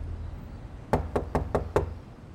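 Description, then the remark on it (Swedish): Five firm knocks on a front door in a quick, even rhythm, fairly loud, with a faint background hiss and no voices. “Ingen öppnar. De testar att vrida på dörrhandtaget.”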